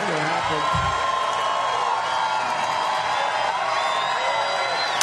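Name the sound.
rally crowd cheering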